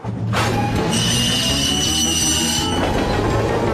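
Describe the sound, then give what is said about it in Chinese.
A train's brakes squeal loudly as the driver brakes on an icy track to stop before a large fallen tree branch, a sustained high-pitched metallic screech over a rumbling, clattering undercarriage, continuing for several seconds without letting up. “好的，莱德，我会踩刹车。”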